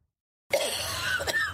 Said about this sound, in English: More than 20 on board are sick. But is it coronavirus? No one knows for sure yet. But this video of a passenger having a coughing fit is raising eyebrows